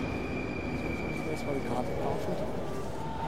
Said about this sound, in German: Ich fahre jetzt mit der S-Bahn natürlich Richtung Club.